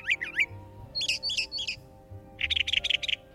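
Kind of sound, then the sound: bird, blue jay call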